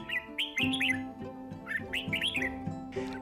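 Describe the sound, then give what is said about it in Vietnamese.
Red-whiskered bulbuls sing in a melon garden on a sunny day, a lively, continuous stream of bright chirpy phrases, several birds overlapping, with a steady low hum underneath and no talking. “Hôm đó trời nắng, Mẫn nằm giữa vườn dưa, mấy con trà mào vẫn hót líu lo không ngừng”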